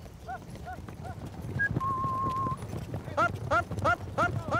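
Horses trotting, ridden to encircle a herd of bulls, with a steady, rhythmic clip-clop of hooves over a low outdoor rumble, with a brief high whistle and repeated chirping tones on top.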